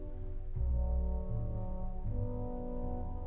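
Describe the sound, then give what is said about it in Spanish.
A movement from Gustav Holst's orchestral suite The Planets, composed 1914–1916, plays slow, sustained low chords that change twice, with deep, steady brass-like tones swelling at an even level and no voices. “Estuvimos escuchando primero Mercurio y ahora suena Saturno.”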